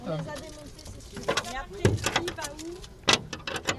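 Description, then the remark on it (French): Rowing boats being rigged and assembled on the Île de Saint-Cloud at 6 a.m. while still dark, with sharp metallic clanks and knocks at irregular intervals, two louder bangs standing out, while people talk throughout. “je viens de me garer, je me dirige vers un, un bruit qui nous est familier à toutes et tous. Oui, celui du montage des bateaux.”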